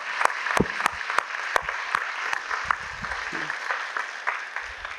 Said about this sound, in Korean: 예, 그 주님께 오늘 영광의 박수를 한번 올려드리고 다시 한번 가겠습니다. 할렐루야! 할렐루야!